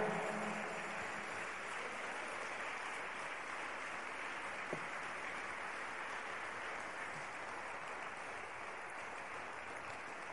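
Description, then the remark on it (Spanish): A crowd claps steadily throughout, a dense, continuous wash of applause that stays fairly even in loudness for the full ten seconds, with no speech over it. “Le damos un fuerte aplauso a él, aleluya.”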